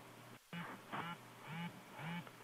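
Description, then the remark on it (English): An accessible portable power bank, after its side button is pressed, vibrates four times in short, evenly spaced buzzes, each a raspy rattling hum, showing how much power is left, with a faint background hiss and no talking. “It actually just vibrated four times, if you could hear that.”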